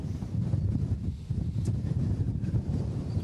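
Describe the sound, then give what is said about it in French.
Strong, very cold wind on the beach at Vimereux on the Pas-de-Calais coast of France, gusting to nearly 100 km/h, buffets the microphone in a continuous low-frequency rumble, loud and gusty, with no voices present. “ah il y a plus il y a encore beaucoup de vent hein.”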